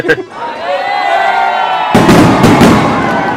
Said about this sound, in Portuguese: Alguém deu dois tiros pra cima, ok? A brincadeira acabou de mudar de nível.